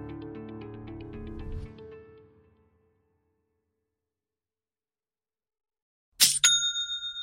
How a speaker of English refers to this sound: You know that's the sound of another sale on your online Shopify store